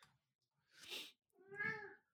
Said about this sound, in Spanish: Sí, ¿no, bebé? Se escucha re fuerte, es un maullido. Está hablando también, está participando.